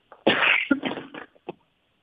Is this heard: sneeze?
yes